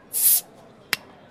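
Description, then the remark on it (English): A bottle opens with a short, bright hiss of escaping gas, followed a moment later by a single sharp pop or clink. Both sounds are clear, with no voices. “And then uh, sit back, relax, pop a bottle.”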